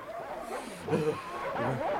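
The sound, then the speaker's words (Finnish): A pack of harnessed sled dogs, which ran wild straight into an open lead in the ice, yelps and whines excitedly, their high, wavering cries overlapping continuously, with no talking. “Koirat pahukset villiintyivät ja juoksivat suoraan railoon.”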